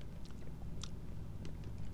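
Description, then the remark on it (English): Someone munches on raisins, with soft, moist chewing and a few faint crackly clicks over a low steady rumble. No one speaks. “I like to munch on radio, raisins.”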